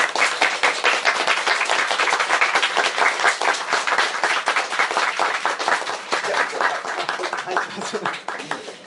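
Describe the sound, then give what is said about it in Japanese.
Sustained audience applause at the end of a lecture, for the lecturer who came from Kobe, a dense crackle of many hands clapping steadily for several seconds, loud throughout and tapering slightly at the end, with no voices rising above it. “今一度あの拍手の方よろしくお願いします。”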